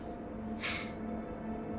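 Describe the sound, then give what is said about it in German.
A voice imitates a heavy snorting breath, breathing in and out once with a noise after drinking up a whole soup: one short, breathy, hissing burst, moderately loud, against a steady low background hum, with no talking. “Schnaufst einmal ein und wieder einmal aus mit einem Geräusch”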